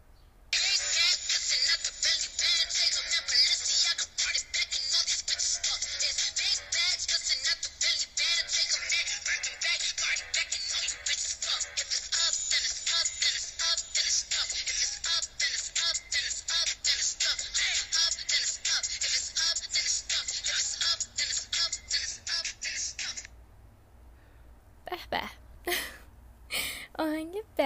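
A recorded song plays steadily and loud for about twenty-three seconds with a full, dense sound, then cuts off abruptly, followed by a few seconds of brief, choppy sounds.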